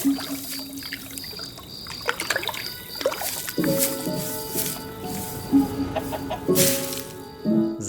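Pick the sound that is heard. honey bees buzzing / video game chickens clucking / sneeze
video game chickens clucking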